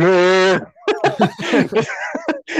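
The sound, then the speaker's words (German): A voice makes a short, strained, drawn-out vocal sound imitating a yawn, loud, followed right away by quick chatter and a bit of laughter. “bis der Gähner dann auch wirklich mal deinen Körper entfleucht und dann bist du danach so, oh, heftig.”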